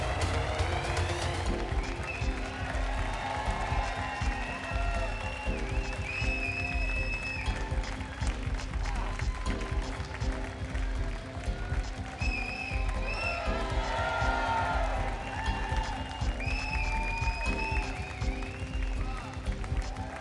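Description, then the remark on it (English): A crowd cheers and applauses steadily for twenty seconds, dense clapping mixed with shouts and high whoops rising above the roar, staying loud throughout without letting up. “You guys gonna cheer me on?”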